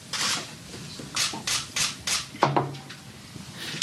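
Press cameras clicking at a weightlifter's press conference after her positive doping test became known in early April 2016, in a quick, irregular series of crisp shutter bursts, with several overlapping snaps over a low murmur and no clear speech.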